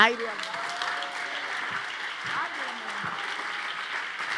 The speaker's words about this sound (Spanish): si le va a dar el aplauso.